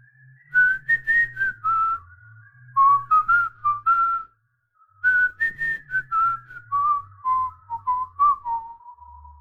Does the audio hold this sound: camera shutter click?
no